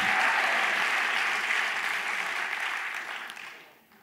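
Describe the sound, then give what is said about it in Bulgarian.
A church audience applauds at a preacher's call to clap, with dense, sustained clapping that holds steady, then thins and fades out near the end. No voices stand out over the clapping. “Имам нужда от пет човека, които пляскат и казват аз му вярвам на този проповедник.”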